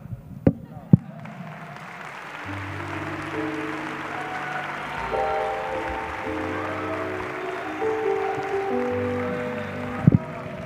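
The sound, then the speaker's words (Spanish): A large audience claps steadily for about ten seconds, a dense, even wash of applause, with a few sharp knocks near the start and end and sustained tones humming underneath. “Voy a tomar agua, aplaude.”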